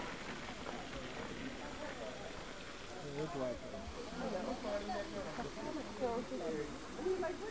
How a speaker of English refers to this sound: And it's uh, in front of me, it's uh, a deep valley filled with water and a very big fountain uh, with several uh, forms of water splashing around itself.